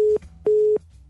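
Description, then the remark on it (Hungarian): A telephone busy tone after a dropped call during a morning show phone interview: two steady, mid-pitched beeps with a short gap between them, sounding alone over faint line hiss. “Na, megszakadt addig.”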